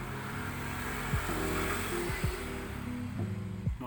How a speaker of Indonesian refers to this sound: motor lewat maaf lah namanya juga di luar terus cuy